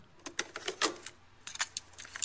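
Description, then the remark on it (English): A cassette is handled and pushed into a tape player, making a run of sharp plastic clicks and rattles in two bursts separated by a brief pause, with no voices. “And find a working tape player and, then here it is.”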